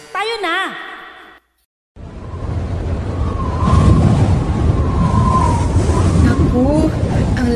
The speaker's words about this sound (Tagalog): lakas na ng hangin. Paparating na ata talaga ang bagyo.